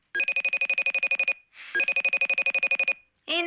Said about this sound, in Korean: 오후에는 애들 데려와서 간식 좀 먹이고 같이 쉬어야지 할 때 꼭 어머니의 벨소리가 울립니다요.